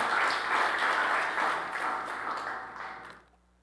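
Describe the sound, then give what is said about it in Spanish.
An audience bursts into sustained, loud applause for the Lord, a dense wash of many hands clapping together that holds steady for about three seconds before quickly fading out. “Démosle un aplauso fuerte, Señor.”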